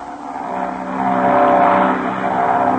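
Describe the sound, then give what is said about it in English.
A propeller airplane roars overhead and dives over a field, its droning engine swelling louder toward the middle, then holding steady. No one speaks. “Suddenly, the roar of a plane overhead is heard, and Ma, Patsy, and Pinky rush out, thinking it's Captain Midnight.”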